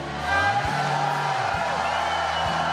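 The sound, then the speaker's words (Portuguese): A large crowd shouts and cheers to God together in a loud, sustained roar that fills the whole moment, with a low steady musical drone underneath. “Give a shout to God.”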